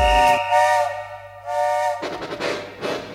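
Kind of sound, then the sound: vehicle, steam train whistle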